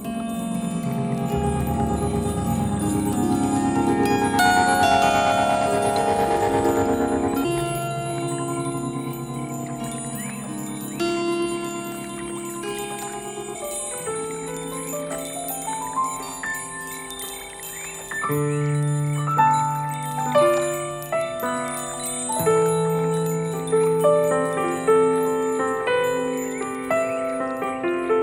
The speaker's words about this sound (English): And the chimes are uh, from around the world small chimes, shanty chimes, baby chimes, Woodstock chimes, to help capture the high treble end of the sound hearing spectrum.